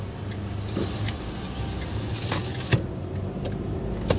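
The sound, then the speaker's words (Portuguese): A car pulls over and comes to a stop, its low, steady engine rumble filling the cabin, with a couple of sharp clicks and a light thump near the end. No one speaks. “E eu vou parar bem ali, tá? Pra não atrapalhar o trânsito.”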